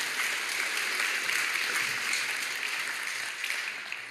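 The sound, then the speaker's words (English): An audience in a church claps steadily for several seconds, a dense, even wash of many hands with no voices standing out, holding at a constant loudness before easing slightly at the end. “Hey, thank you guys for sharing with us today. Can we thank them?”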